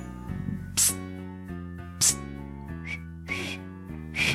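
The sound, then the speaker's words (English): Someone tries to whistle but only produces breathy, airy puffs over a hummed voiced tone, about five short bursts spaced irregularly, fairly quiet, never reaching a clear whistle. “I never learned to whistle.”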